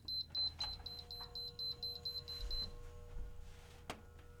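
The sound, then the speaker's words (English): A space heater beeps as it is switched on, a rapid string of short, high electronic tones for a couple of seconds, then stops, leaving a low background hum. “Sorry, I'll let that no, beep go.”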